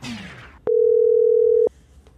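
A single telephone ringing tone while calling someone: one steady, pure, mid-pitched beep lasting about a second, loud, clicking on and off. Brief noise fades out just before it.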